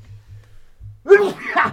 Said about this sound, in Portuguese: É, e, cara, eu vou espirrar.